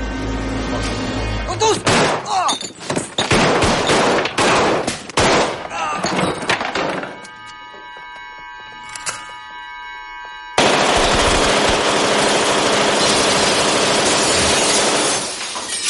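Sustained bursts of rapid automatic gunfire as men shoot up a bar, mixed with shattering glass and clattering debris, then a brief lull with ringing tones before another loud, dense barrage of shooting.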